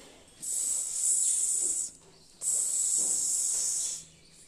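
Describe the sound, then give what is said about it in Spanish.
A snake named Sara hisses twice, two long, loud hisses separated by a brief pause, each a sustained airy rush lasting over a second with no talking around them. “Sara empezó a sisear. Hacía un sonido muy fuerte.”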